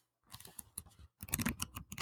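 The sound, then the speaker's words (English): Pages of a new comic book printed on a different kind of paper rustle, first in a few light, scattered crinkles, then a denser burst of crisp paper shuffling near the end. It is fairly quiet, with no talking. “paper, and it's a different kind of paper, like mm, reminiscent of kind of like when I was a kid reading the comics”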